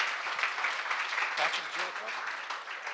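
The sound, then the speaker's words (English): Steady, dense applause from an audience fills the whole moment, a continuous crackling wash of many hands clapping at once, with a voice briefly audible beneath it. “All right, keep those applause coming.”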